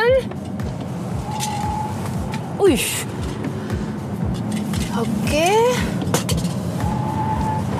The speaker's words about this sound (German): Beschleunigen, das kann der Tesla. Für … noch wichtiger, wie sieht es in den Kurven aus?